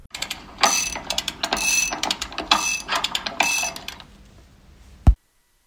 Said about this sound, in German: Das ist Segeln. Winch. Winchen.